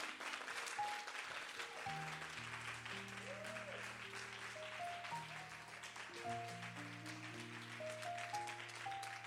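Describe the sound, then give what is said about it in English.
A church audience claps together for the Lord in a dense, steady wash of applause lasting the whole stretch, with sustained piano chords ringing underneath and no one speaking. “Come on, give the Lord your best hand clap this morning.”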